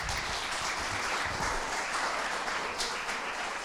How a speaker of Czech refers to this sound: Tak jo, přátelé, Díky, díky vám, můžeme zatleskat.